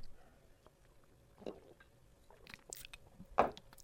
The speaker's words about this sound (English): Let me take a sip of my limeade.